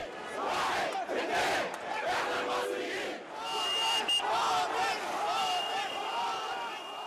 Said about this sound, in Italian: Quelle che state ascoltando sono le voci delle migliaia di manifestanti egiziani che a partire dal 25 gennaio 2011 scendono in piazza per protestare contro il trentennale regime del presidente Osni Mubarak.